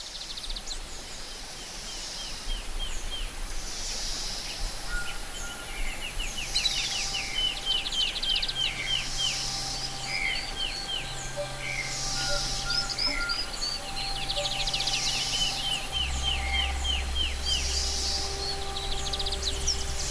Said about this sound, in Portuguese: Na mata, o barulho da natureza ecoa em camadas, num caleidoscópio de pequenos sons. Tudo em volta canta.